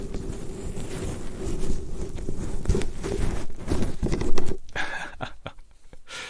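Loud, crackly rustling as a windjammer microphone windscreen is deliberately rubbed, a dense scratchy rumble for several seconds that thins into a few scattered clicks, with a brief laugh.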